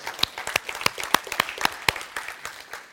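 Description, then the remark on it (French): An audience applauding the Lord during a church sermon, many hands clapping in a dense, uneven patter of sharp claps that holds steady and then thins slightly toward the end, with no voices over it. “Que peut dire Amen Oh, tu peux applaudir, tu peux applaudir le Seigneur.”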